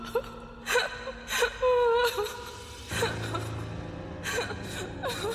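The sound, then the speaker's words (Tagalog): A woman cries in a hoarse, muffled way, with shaky gasping breaths and strained whimpers coming in uneven bursts, with no talking. “Isang babae na parang paos habang impit na umiiyak.”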